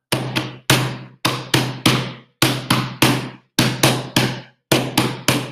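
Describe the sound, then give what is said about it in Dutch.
Loud stamping and clapping in a steady rhythm as a woman dancing on a stage stamps her feet and claps her hands, sharp thuds and smacks arriving in quick bursts of two or three with short pauses between, each hit ringing briefly. No voices. “Ze stampte met haar voeten en klapte in haar handen.”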